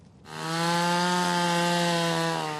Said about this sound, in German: Zunächst sind die Motorsägen und Spitzhacken dran. Irgendwie muss man ja an das Wasser unterm Eis herankommen.